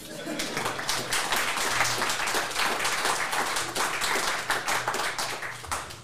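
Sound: applause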